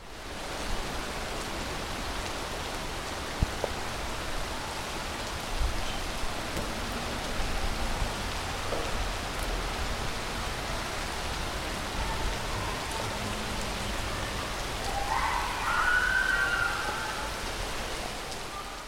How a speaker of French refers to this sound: exaspérée par toute cette eau qui tombe du ciel